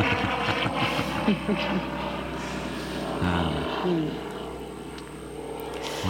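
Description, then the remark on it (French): A low, steady drone of an airplane passing overhead fills the background, a broad rumble with droning tonal hum, while a person briefly vocalizes over it. “On va laisser passer l'avion.”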